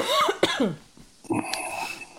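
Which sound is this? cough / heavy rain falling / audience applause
cough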